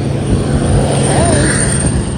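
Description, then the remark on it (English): A passing truck's engine rumbles loudly and steadily outside, a deep, continuous roar with a faint whine rising above it, sounding like a spaceship, filling the whole moment without any voices. “sounds like a spaceship but it's just a truck”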